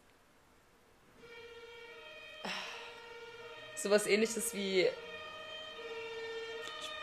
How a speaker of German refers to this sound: ich wundere mein... mich, ob äh, die Feuerwehr gehört wird bei dieser Aufnahme. Ja. Wenn ja, haben wir einfach so ein bisschen Background-Sound.